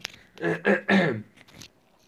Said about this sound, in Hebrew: שנייה, יש לי עוד רגע שיעול קטן, סליחה.